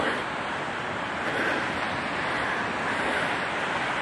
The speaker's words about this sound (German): Und ihr hört es vielleicht. Das Meer. gehört natürlich zu der Urlaubsepisode auch dazu.